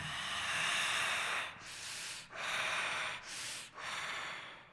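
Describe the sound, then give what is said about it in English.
Harsh, raspy breathing from a long, lanky, vaguely human creature standing in a dark church, rumbling off the church walls. It is loud, in a steady cycle of four noisy inhales and exhales separated by brief pauses, with no voices. “Its eyes glow like that of a feral cat, and its raspy breath rumbles off the church walls.”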